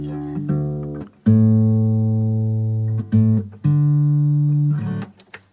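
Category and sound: musical instrument being tuned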